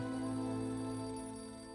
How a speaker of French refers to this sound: Barry Harris essaye de l'appeler, mais Hawkins n'a même plus la force de décrocher le téléphone.